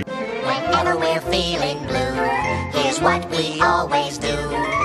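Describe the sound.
A bouncy, upbeat cartoon song plays loudly and continuously, with voices singing the melody over a bright, jingly instrumental backing.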